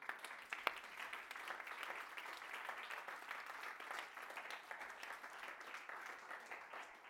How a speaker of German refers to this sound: Und ich darf wir dürfen echt Applaus geben.